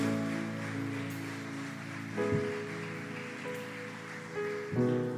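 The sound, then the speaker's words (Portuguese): A church audience gives a loud round of applause for Jesus in a dense, steady wash of clapping that holds for several seconds, while sustained keyboard chords play underneath and shift a couple of times. “Dê um aplauso bem forte para Jesus.”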